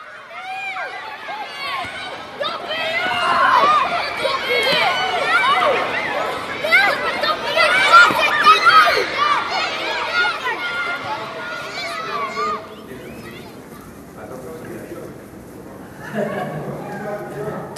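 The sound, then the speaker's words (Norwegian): Dense crowd chatter fills the underpass up from the T-bane metro at Tøyensenteret shopping centre in eastern Oslo on a windy winter day, many overlapping voices at a steady moderate level, thinning out toward the end before a brief swell of voices returns. “Tøyensenteret på Oslos østkant en forblåst vinterdag. I undergangen opp fra T-banen sjangler et par slitne narkomane.”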